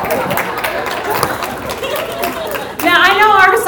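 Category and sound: crowd, audience clapping and cheering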